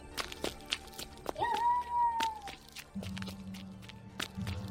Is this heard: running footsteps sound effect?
yes